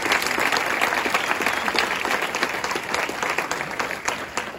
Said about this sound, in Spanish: Denle un fuerte aplauso a Dios en esta mañana.